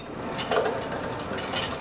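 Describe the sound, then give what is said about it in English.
Ice cubes clatter and rattle continuously out of a soda machine dispenser as a customer fills his drinking glass, a busy crunching cascade against the background hum and piped-in music of a fast food restaurant near the UW Milwaukee campus. “Inside a fast food restaurant near the UW Milwaukee campus, there's plenty of noise, for example, piped in music and a customer filling his drinking glass with ice from the soda machine.”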